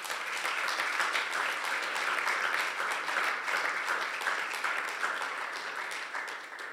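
A church audience applauds steadily for several seconds to thank two members for their service and for opening their home as a house church, a dense, even wash of many hands clapping at moderate volume that tapers slightly toward the end, with no one speaking.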